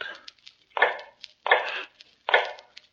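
An old man makes shoes in the dark in cell 105 of the North Tower: steady, evenly spaced hammer blows on a shoemaker's last, three solid low knocks, each with a short ringing tail, with faint tapping between them.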